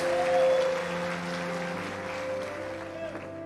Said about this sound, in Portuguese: Dê uma salva de palmas a Jesus, aleluia!